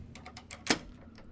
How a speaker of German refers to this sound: Sie zieht einen Schlüssel aus der Tasche ihres Kleids und dreht ihn um im Schloss.